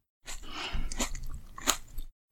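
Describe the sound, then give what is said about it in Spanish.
Wet, crunchy chewing of grapes, a few moist bites and squishes over about two seconds with sharper crunches near the middle and end. No one speaks. “Me encanta comer uvas.”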